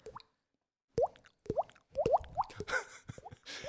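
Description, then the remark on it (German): Someone makes a quick series of hollow, rising plops with their mouth, imitating water drops falling. The fairly loud pops come in an irregular rhythm, some in rapid pairs. “Ich weiß nicht, ob das jetzt schlau ist, das anzusprechen, weil dann der Vor Vorführeffekt kommt, aber wir können ja beide dieses Tropfen mit dem Mund.”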